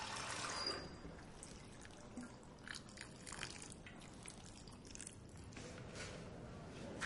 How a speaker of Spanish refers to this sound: Pepe coge la escupidera rosa. El recipiente está lleno de tierra. Pone dentro unas semillas. Llena una taza con agua y riega.